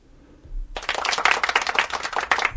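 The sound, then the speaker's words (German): Light, thin applause from a small group starts abruptly and continues as a steady patter of quick, overlapping claps, modest in volume and without cheering or voices. “Das ist aber ein schwacher Applaus, oder?”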